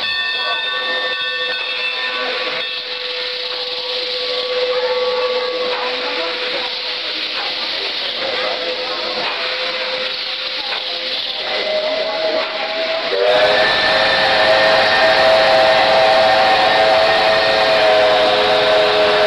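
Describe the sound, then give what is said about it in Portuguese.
A steam train's whistle sounds in long sustained tones over constant hissing steam and rumbling, shifting pitch partway through and growing louder and fuller near the end, with no talking. “É a, o som do trem, né?”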